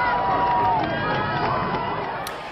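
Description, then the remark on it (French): A large crowd murmurs and calls out in a continuous, overlapping swell of voices, steady and fairly loud throughout, with individual cries rising above the general hubbub before easing slightly at the end, reacting as a space shuttle explodes about 73 seconds after launch. “Bientôt, les caméras du sol vont quitter la navette, la prise de vue va être relayée par avion, mais soudain, la navette est totalement pulvérisée. Une partie du public vient de comprendre.”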